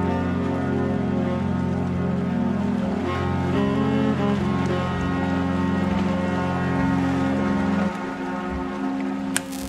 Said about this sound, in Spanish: Gracias a ellas sabemos cómo suena esta historia, que comienza con un barco accidentado a la deriva y en mitad de un temporal en el Atlántico.